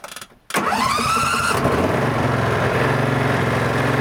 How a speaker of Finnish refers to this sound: mutta on se ollut mahtavaa, että traktoriakin on päästy ajelemaan. No niin, käynnistys.